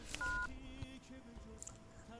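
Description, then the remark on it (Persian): A short electronic keypad beep as a phone number is dialed rings out clearly, then fades into a low, steady background murmur with a faint high chirp. “زنگ میزنم حالا احوال میکنم”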